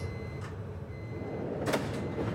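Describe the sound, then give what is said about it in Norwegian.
Metro train sliding doors close over a low, steady rumble of the carriage, with a soft whoosh early on and a louder thump as the doors meet near the end. “Dørene lukkes.”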